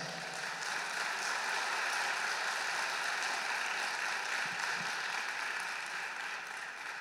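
A church audience applauds the Lord steadily, a dense wash of many hands clapping at once that holds an even level for several seconds, with no voices on top.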